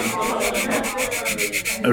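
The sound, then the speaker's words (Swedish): A steady scratchy rubbing against the rough, non-smooth label of a Gypsy Hill Investor beer can, with a regular back-and-forth rhythm of bright, raspy strokes at even loudness, ending in a brief louder scrape. “raspiga burkar.”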